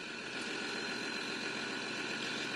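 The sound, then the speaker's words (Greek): A tractor engine runs steadily, a loud, continuous rumble with a constant mechanical drone and no changes in pace across the short stretch, as the tractor carries a news crew through the flooded village of Marathea in Karditsa, Greece. “πάνω σε ένα τρακτέρ σα μεταφέρουμε αυτέ τι ανεπανάληπτε εικόνε καταστροφή μέσα στον ε, οικισμό.”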